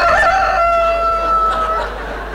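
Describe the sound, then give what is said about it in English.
A single loud rooster crow rings out, a long sustained cock-a-doodle-doo with bright harmonics that trails off after about two seconds. “He invented the feathered alarm clock.”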